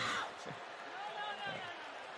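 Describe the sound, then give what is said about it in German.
A single sharp backhand slap in a wrestling match cracks loudly at the very start, then gives way to a steady roar of arena crowd noise with faint commentary underneath. “Oh, was für eine Ohrfeige, alter Schwede, mit der Rückhand.”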